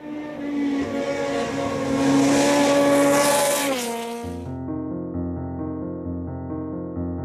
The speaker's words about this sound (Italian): Su quel tracciato, oltre al fiato corto dei motori e al mulinare stridulo dei pneumatici